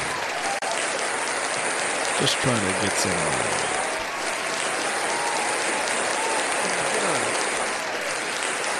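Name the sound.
crowd applause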